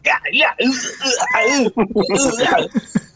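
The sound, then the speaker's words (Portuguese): A voice imitates a friend's strangled, choking screams while playing a squad video game: loud, strained vocal bursts with wavering, sweeping pitch and gurgling breaks, in a rapid, broken run for about three seconds. “Mano, parece que alguém entrou no quarto dele e tá estrangulando ele, tá ligado?”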